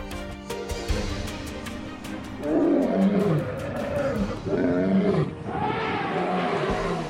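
Several deep, rumbling roars from big cats rise and fall in long swells over a constant savanna ambience, loud, with no voices.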